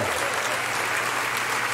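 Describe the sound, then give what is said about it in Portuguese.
A large crowd claps steadily together in a round of applause for God, a dense, sustained wash of applause with no pauses or speech over it. “Se alguém está recebendo de pé, dá uma salva de palmas ao nosso Deus.”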